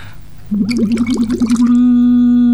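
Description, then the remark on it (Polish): During a voice exercise, a steady hummed voice tone runs through a tube submerged in water, with a burst of rapid gurgling bubbles for about a second before it continues as a smooth, sustained hum. Fairly loud. “Ostatnim ćwiczeniem z tej serii będzie fonowanie z rurką zanurzoną w wodzie, fonowanie z rurką wyjętą z wody i fonowanie bez rurki zupełnie.”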